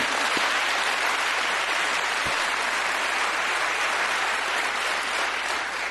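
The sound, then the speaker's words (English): A large audience at a CNN town hall in Iowa applauds steadily after Beto O'Rourke's answer on impeachment. It is a dense wash of clapping hands that stays loud and even for several seconds, with no voices rising above it. “uh, big town hall for on CNN with Beto O'Rourke out in uh, Iowa, and he got the impeachment question, and he got the biggest applause line of the night.”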